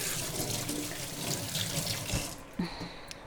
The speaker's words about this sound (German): Achtung, einmal Hände waschen.